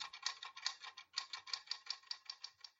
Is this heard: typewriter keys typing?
yes